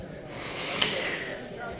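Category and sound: vocal imitation, voice imitating snoring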